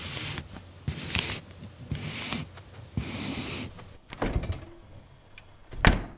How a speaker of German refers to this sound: Das war die Kühlschranktür.